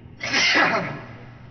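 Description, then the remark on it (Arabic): A single sharp sneeze bursts out, a short explosive rush of breath that fades quickly into quiet room tone. “رحمك الله”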